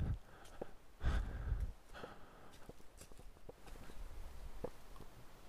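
Heavy yet light-footed animal steps move through a forest, three or four heavy but elegant treads with muffled thuds and scattered crunches on the ground, with a deep breathy snort or sigh near the start.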